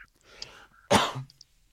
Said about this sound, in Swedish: Nu hostar jag, men du behöver inte vara rädd för det är social distansering över, telefonen.